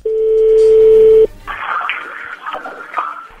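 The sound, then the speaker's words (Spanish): A steady, loud telephone dial tone hums for over a second, then cuts off into a stretch of softer, crackly line noise with brief bursts as the number is dialed. “ahí se está marcando.”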